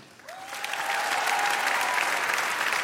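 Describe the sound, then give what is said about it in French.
An audience in a hall applauds to show they think Michael Jackson is innocent. The applause swells up within the first second into a steady, dense wash of clapping that holds at full strength, with a faint high tone running briefly underneath. “Par applaudissement, qui dans la salle pense comme moi que Michael est innocent et qu'il n'a rien fait”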